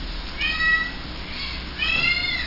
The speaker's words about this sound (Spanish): Ah, los gatos quieren, quieren comer. pero si les doy. Quieren pizza también. Están a nada de hablar los gatos.